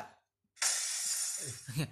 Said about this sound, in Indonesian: oh, itu kaca iya. pecah.